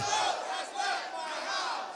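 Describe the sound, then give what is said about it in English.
A large audience shouts together on cue, as loud as they can, a loud, dense wall of many voices sustained for a couple of seconds with slight swells in volume and no single voice standing out. “Now, everybody together as loud as you can do it.”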